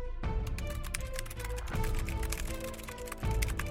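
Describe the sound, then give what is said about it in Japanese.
Dense, overlapping clatter of keys as six people at once type on laptop computers lined up on a long table in a silent room, a steady rapid stream of clicks with no talking. “その場にいる皆が一斉にパソコンを操作し始めた静寂の部屋にキーボードを打つ音だけがこだました”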